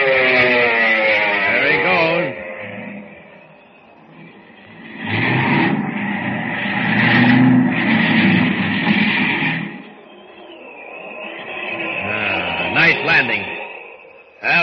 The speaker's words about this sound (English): Look, the plane's gonna land.